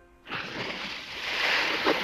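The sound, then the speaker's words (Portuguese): Water sloshes and splashes steadily against a small fishing boat as it rocks, a continuous watery wash that swells in after a brief quiet start, with no voices. “Para de balançar o barco, Tainha!”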